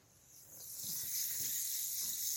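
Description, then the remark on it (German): A steady, airy fizzing hiss with a faint crackle from a jar of honey foaming out over the top, rising slightly in level and continuing without pause, fairly quiet, with no voices. “Unser Honig Glas ist jetzt schon Boah, es schaumt oben raus, das sieht so widerlich aus.”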